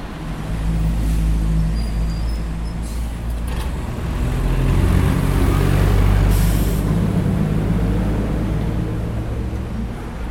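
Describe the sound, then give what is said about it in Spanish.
Dense city street traffic beside a main avenue rumbles steadily as the traffic light turns green, with heavy engines of trucks and buses swelling louder midway as vehicles pull off together, plus a hissing air brake release and a continuous low roadway drone; the level rises from about 60 to about 75 decibels on average. “Cuando el semáforo da en verde es notoria la diferencia, sube a 75 eh, en promedio.”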